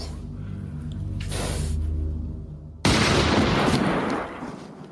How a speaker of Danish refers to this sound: Mads Mikkelsen som Arne i Blinkende Lygter, der skyder køer ud på en mark.